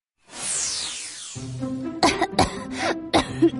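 A child coughs in a quick run of about five harsh, throaty bursts, preceded by a soft descending whooshing tone. No speech.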